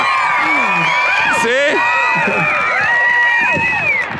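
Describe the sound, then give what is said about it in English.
A church audience, the third-service attendees, cheers and shouts loudly, with many overlapping whoops and yells rising and falling over a steady wash of clapping, sustained at full volume for the whole stretch. “Now, if you are typically part of third service, let's hear a loud shout and a round of applause.”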